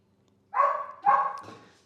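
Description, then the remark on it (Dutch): Two sharp dog barks in quick succession, fairly loud, the second trailing into a brief whine, with no talking over them; the dog is outside, too cold, and is being let in. “Ik laat de hond even binnen, want die heeft het te koud buiten.”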